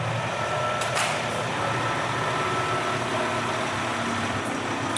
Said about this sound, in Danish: fra Hvidovre, ja. øh, kører ind i den tomme hal, og faktisk bliver øh, dagens første øh, plastikaffald derinde. Ja. Øh, men det, der sker nu, det er, at nu vipper han øh, ladet op, og så kommer plasten over mod væggen her.